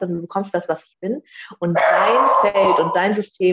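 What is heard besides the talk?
dog barking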